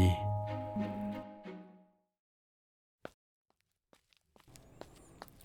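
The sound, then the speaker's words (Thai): A nine-year-old child's short, uneven footsteps land in a sparse, irregular pattern while walking to a bookshop near a school, a few distinct steps following a fading tonal sound and then mixing with soft background noise. “ฝีเท้าสั้นๆ จังหวะทีๆไม่ค่อยสม่ำเสมอกัน ตามประษาเด็กเก้าขวบกระซิบอยู่ข้างหูของผมตลอดเวลา ขณะกำลังเดินไปยังร้านหนังสือแถวโรงเรียน”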